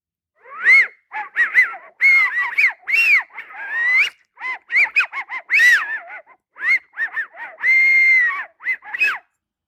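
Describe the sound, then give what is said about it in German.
A blackbird decoy call whistle, blown in a quick series of short chirping, warbling notes with brief pauses between. Fairly loud, with no talking over it. “Ja, jedenfalls habe ich da ähm, zum Beispiel eine Amsel, äh, eine Lockrufpfeife äh, mhm. von einer Amsel.”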